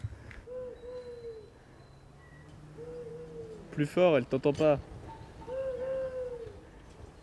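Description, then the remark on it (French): A person holding a pole imitates an owl, giving three drawn-out, wavering hoots spaced a couple of seconds apart, with another voice briefly speaking up between the second and third calls. “Tu veux faire un peu de son Je tiens la perche et je vais faire du hibou.”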